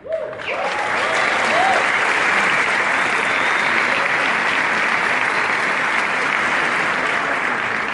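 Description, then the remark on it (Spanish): An audience breaks into loud, steady applause that swells almost immediately and keeps going without letup for several seconds, with a brief voice audible right at the start. “Esto que ustedes están haciendo, yo los aplaudo.”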